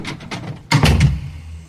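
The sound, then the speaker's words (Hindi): A few soft taps lead into a flat's door shutting with a solid thud, followed by quick rattling clicks as it's locked, then quiet. No one speaks. “चुप चुपचाप लिफ्ट में चला गया और सीधे अपने फ्लैट में जाके दरवाजा लॉक करके ही रुका”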